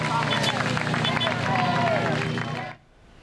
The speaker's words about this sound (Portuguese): O corpo do cantor foi enterrado ao som de palmas.